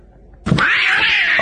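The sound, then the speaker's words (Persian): In a video, a cat jumps onto a man's head as he throws rubbish into a bin, letting out a loud, sustained screech that starts abruptly after a short quiet moment and holds a harsh, high, wavering tone without a break. “یارو آشغال انداخت تو صد گربه پرید رو سرش با نمک بود”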